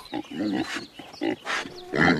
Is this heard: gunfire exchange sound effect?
no